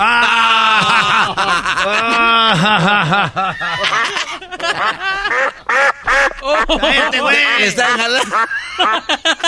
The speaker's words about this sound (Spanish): Hasta el pato se está riendo. Es ganso.